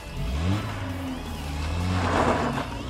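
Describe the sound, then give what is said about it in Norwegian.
A stolen car's engine roars as it accelerates hard at full speed toward nightclub doormen, its pitch climbing in steady surges. The engine is loud, with no voices over it. “Mye tyder på at de ønsket hevn, og hva vil da bedre enn å kjøre mot dørvaktene som kastet deg ut i full fart.”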